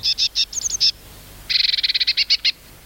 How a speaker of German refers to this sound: Und jetzt die Blaumeise.